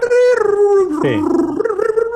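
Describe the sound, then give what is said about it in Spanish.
A voice mimics a 14.4 kbps dial-up internet modem connecting, as in 2000–2001: a steady, loud nasal tone, then a brief hissing burst and a downward-sliding squeal, ending in warbling, wavering tones over about two seconds. “Mira, en aquel tiempo, se acordarán algunos, estamos hablando del 2000, 2001, que cuando tú conectabas al internet se oía...”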